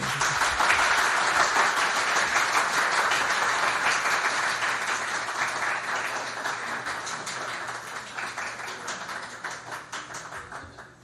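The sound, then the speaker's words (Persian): An audience in Mashhad applauds their own managing director steadily, a dense wash of many hands clapping that stays loud for several seconds and then gradually thins and fades toward the end. “مشهدی ها مدیر عامل خودتونه تشویق میکنی”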